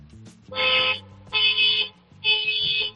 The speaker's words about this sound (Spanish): y basta que llega yo, que no estaba en vacaciones dándole al claxon para que llegue un coche de los nuevos.